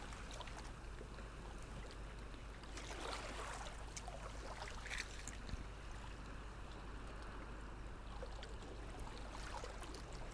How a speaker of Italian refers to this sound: ora che il mare è calmo, ascolta il ritmo lento delle onde che si fonde col tuo respiro.